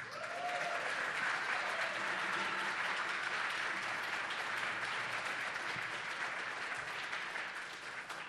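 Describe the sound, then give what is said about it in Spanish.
Sustained audience applause for the drummer at a live music performance broadcast on Radio UNAM 96.1, a dense wash of steady clapping at an even level for about eight seconds, with no talking over it, thinning slightly at the end. “Un fuerte aplauso para Gabriel Puentes en la batería.”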